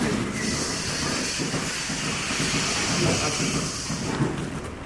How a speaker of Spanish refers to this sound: Aquí mira, ahora el sistema de alimentación eh, va a cargar, ha hecho la mezcla y va a cargar la vagoneta que hace el reparto de la comida a las vacas de producción.